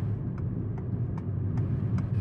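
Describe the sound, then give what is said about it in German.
Faint, regularly spaced squeaks repeat about twice a second over the steady low rumble of a car driving behind a shabby truck, with no talking. “Irgendwas quietscht. Ist es mein Auto oder ist es dieser schäbige LKW vor mir?”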